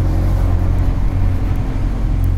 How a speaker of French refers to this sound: Il est 11h05, sous un doux soleil printanier. Autour de nous, un quartier en mouvement. Des voitures sur un parking. D'autres qui roulent.